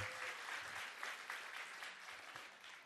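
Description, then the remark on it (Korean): An audience at the Cultwo Show applauds 25 specially attending staff members, many hands clapping in a dense, continuous patter that holds at an even loudness for the whole stretch, with no one speaking over it. “자, 그리고 오늘 특별히 관계자분들 25분 오셨, 습니다 박수 한번 주세요.”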